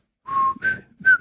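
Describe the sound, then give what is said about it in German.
A person whistles a short tune, a few clear sustained notes stepping up and down in pitch with brief breaths between them, with no talking. “Welche Melodie? Äh, Pfeife irgendwas.”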